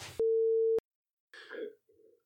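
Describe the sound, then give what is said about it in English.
A phone's text message alert for an incoming listener text sounds as one loud, steady electronic beep lasting about half a second, followed by a few rough throat-clearing noises. “And the listener has a very special Text. text us, coming in, uh, which is perfectly timed.”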